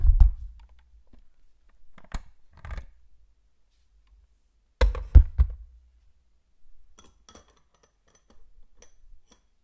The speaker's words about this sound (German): So, dann hört ihr nochmal kurz. die Haken abkratze.